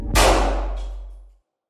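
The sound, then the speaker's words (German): A single loud gunshot fired during an interrogation: a sharp, sudden crack that rings out and fades over about a second, with no voices around it. “Kurz darauf fällt ein Schuss.”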